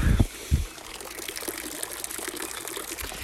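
A small trickle of running water flows steadily, a continuous bright splashing hiss, with a couple of low thumps near the start.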